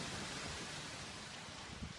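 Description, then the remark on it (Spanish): Steady, even hiss of rain falling on a square with a small chapel, a soft continuous wash of noise with no distinct drops standing out, fairly quiet and heard alone without any voices. “Me viene muy bien para resguardar a mi pequeño de la lluvia y que entremos un poco en calor.”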